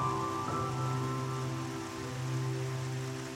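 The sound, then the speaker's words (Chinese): Rain patters down in a soft, steady hiss of falling drops, with sustained low humming tones holding underneath throughout; no one speaks. “雨滴从那朵圆圆又尖尖的云里滴下来”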